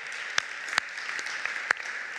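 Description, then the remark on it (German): A church audience in Heilbronn applauds its online production team with a steady, dense wash of clapping, a few sharper individual claps popping out above the rest. No one speaks over it. “Hey, lass mal unserem Online-Team einen Applaus geben.”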